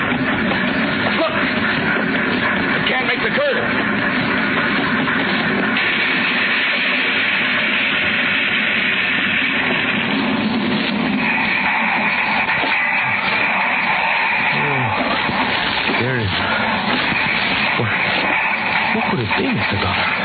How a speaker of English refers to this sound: It will not take too long to start. Look. Look, he's dumped the engine into the ground. The engine is starting.